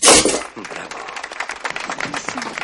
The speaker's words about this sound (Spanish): En la boda judía el novio estalla una bombilla.